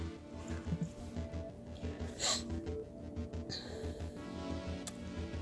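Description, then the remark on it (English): A person with a runny nose makes a couple of short, breathy nasal sniffs, one clearly louder around the middle, over a steady, low, rhythmic background hum. No one speaks. “Okay, so first of all, I want to apologize a little bit for the sniffing. I got a little teeny bit of a runny nose.”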